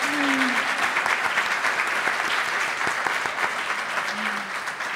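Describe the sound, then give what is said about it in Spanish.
A sustained round of applause from an audience, many hands clapping in a dense, steady wash that holds at an even, fairly loud level for the whole stretch, with a faint murmur of voices beneath. “Vamos a aplaudirle, señor.”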